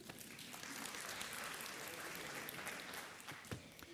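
Steady, sustained applause from an audience, given to thank a person, fills the whole stretch: a dense wash of many hands clapping at once, fairly loud and continuous with no voices over it.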